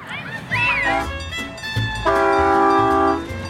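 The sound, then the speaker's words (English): A small, fully loaded zoo train with a Christmas tree at the back rolls by at the Milwaukee County Zoo with a low rumble, then sounds a loud, steady horn blast lasting about a second. Faint voices can be heard in the background. “Well, looks like they have a full train today at the Milwaukee County Zoo.”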